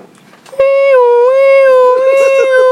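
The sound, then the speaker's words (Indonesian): A voice imitates the siren fitted on a Kijang Innova police car, a loud, sustained wailing tone that rises slightly and wavers for about two seconds, following a short stretch of quiet background. “sambil pasang sirene”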